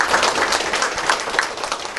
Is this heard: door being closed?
no